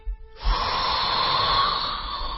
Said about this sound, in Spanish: Inhalamos profundo, boca de pececito, con eh, respiración abdominal. Venga.